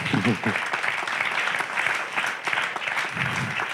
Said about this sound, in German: Ihr dürft klatschen.